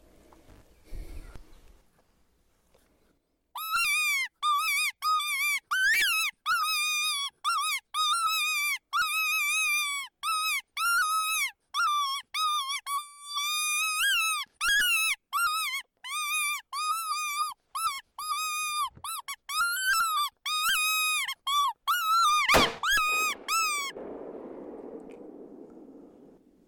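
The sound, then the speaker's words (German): A predator call blown to lure a fox, making rapid series of shrill, wavering squeaks in quick bursts for about twenty seconds, followed by a brief soft rustle. “ich hätte fast den Locker verschluckt”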